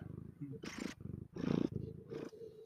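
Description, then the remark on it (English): A cat purrs close to the microphone, a low rumbling vibration that swells and fades in rhythmic bursts with each breath. “I wonder if the mic will pick up the purring.”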